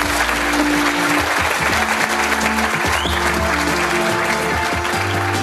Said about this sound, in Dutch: Een applaus.